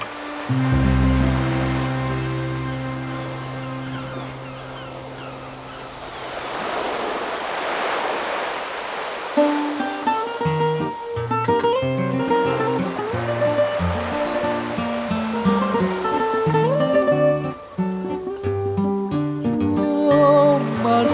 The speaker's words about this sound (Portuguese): E deixa a gente aí com esse barulhinho gostoso do mar, embalando os nossos corações.